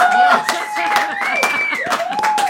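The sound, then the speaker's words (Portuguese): A loud, steady burst of crowd noise welcoming a couple, dense clapping mixed with cheering voices and rising and falling whoops, continuing without a break for a couple of seconds. “Prepare as palmas para esse casal lindo e maravilhoso com vocês.”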